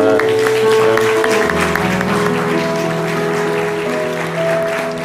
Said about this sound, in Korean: 우리 특별히 우리 교육 목자로 수고하시는 우리 모든 분들을 위해서 스승의 날을 기념하면서 우리 자녀들은 더 큰 박수로 하고요. 우리 모두 그들을 위해서 격려합니다.